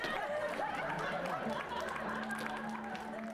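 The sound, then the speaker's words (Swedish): A large cinema audience murmurs and chatters in relief, with scattered clapping rising through the steady hubbub of many voices as spontaneous applause and cheers follow a hockey player's induction into the Hockey Hall of Fame. The noise stays continuous for the whole stretch. “Det går ett lättat sus genom salongen. Därefter följer spontana applåder och hurrarop över att mannen som raserade rasbarriären äntligen blivit invald i ishockeyns finrum.”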